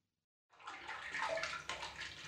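Water splashes and sloshes in a bathtub after a brief silence, a steady wash of movement with a few sharper splashes, no voices present.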